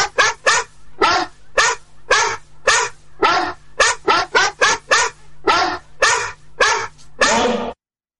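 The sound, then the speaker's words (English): Gabby, a pit bull carrying a sack of mail, barks loudly and rapidly, with about sixteen sharp barks in an uneven, excited rhythm, ending on one longer bark. No one speaks. “Gabby the postal pitbull.”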